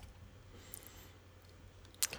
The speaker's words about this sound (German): Klick, klick, klick. Hörst du das? Das Klicken höre ich, ja.